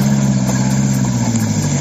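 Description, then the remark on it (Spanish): A vehicle engine runs during a rescue of vehicles caught in snow in Navarra, Spain, during a polar cold spell. It gives a loud, constant low droning hum with a faint rising whine above it, with no voices and no breaks throughout. “ha provocado además algunos rescates de vehículos en Navarra como este.”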